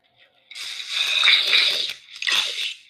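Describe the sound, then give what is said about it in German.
Video game zombie noises from two zombies down in the water: two loud, wet, crunchy gurgling bursts, the first long and the second shorter, with no talking. “Junge, hat sich das Zombie laut an. Wo ist der?”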